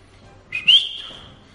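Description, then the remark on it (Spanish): A single sharp human whistle, shrill and slightly rising, lasting under a second before trailing off, given by a spectator watching a match to urge a player to be more alert. It stands alone against a quiet background. “Ya, sabías que la … estaba ahí y era un silbido, silbido cuando decía, venga, espabila un poquito”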